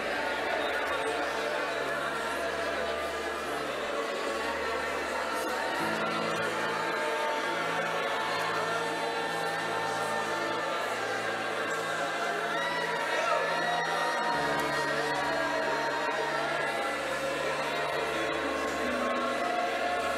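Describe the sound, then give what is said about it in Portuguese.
A dense crowd of many voices overlapping into a continuous, steady murmur, with no single voice standing out, over a low sustained hum that shifts pitch twice. “Como vozes, como uma multidão de vozes.”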